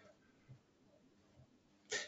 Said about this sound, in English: Let me clear my throat.